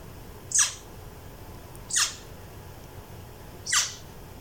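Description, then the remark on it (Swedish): A boreal owl sneezes three times, each a short, sharp, hissy burst spaced about a second and a half apart, clear over a quiet background. “Det är en pärlugla som nyser.”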